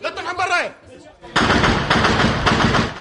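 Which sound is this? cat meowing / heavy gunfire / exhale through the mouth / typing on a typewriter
heavy gunfire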